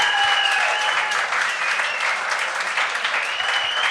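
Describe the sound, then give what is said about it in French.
Steady, dense audience applause for a man the host asks them to applaud, filling the whole stretch, a loud continuous wash of clapping hands with a few faint whistles rising above it. “Applaudissez-le.”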